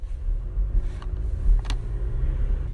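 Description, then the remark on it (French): The four-cylinder B4 mild-hybrid diesel engine of a Swedish car runs at a steady idle, heard through an opened window, its low, throbbing rumble constant, with a couple of brief clicks partway through. No one speaks. “Alors, belle voiture suédoise, mais j'ai exprès commencé cette chronique par ouvrir ma fenêtre pour vous faire entendre le bruit.”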